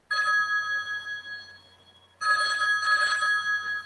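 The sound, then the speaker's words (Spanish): A mobile phone rings with a bright, steady electronic tone, sounding for over a second, pausing briefly, then starting again just as loudly; no one speaks. “Ay, espérame que me están llamando, creo que es un mensaje o la alarma.”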